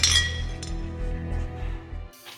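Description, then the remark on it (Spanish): Glasses clink together in a toast to family, one sharp bright chime that rings and slowly fades over a steady low background hum, with no voices. “Salud, mi familia.”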